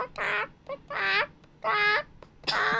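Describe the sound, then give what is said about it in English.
A voice imitates a chicken with four loud, nasal squawking calls in a steady rhythm, separated by short pauses, with no other talking. “I was like a chicken.”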